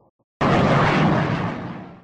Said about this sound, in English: That's the sound you hear when a fish hits the new Sonic bait fish from Mack's Lure Company. This metal lure can be cast, trolled, or jigged, and will catch just about anything that swims in the sea, the river, or the lake.